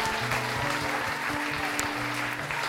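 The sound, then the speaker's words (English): An audience applauds the wise men after their song, a steady, dense wash of clapping that holds at a fairly loud level throughout, with a low tonal hum running underneath. “Round of applause for our wise men.”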